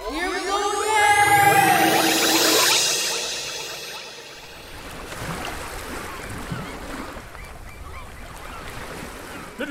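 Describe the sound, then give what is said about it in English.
Swooping, sliding tones fade into a steady wash of ocean waves and splashing water around a boat from the Kerry mainland to Skellig Michael, a continuous moderate rush with no voices. “Did you sneak on my boat from the Kerry mainland?”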